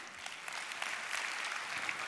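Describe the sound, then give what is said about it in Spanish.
Steady applause from an audience, a dense crackle of many hands clapping at once, holding an even, moderate loudness throughout the short stretch with no voices on top. “Den un aplauso aquí.”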